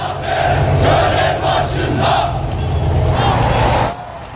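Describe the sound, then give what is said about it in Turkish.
A crowd of protesters shouts together near the port in İskenderun as ships unload equipment, in loud, overlapping bursts, voices rising and falling in a steady chanting rhythm before dropping off abruptly near the end. “Gemiler ekipmanı boşaltırken İskenderun'dan tepki sesleri de yükseldi.”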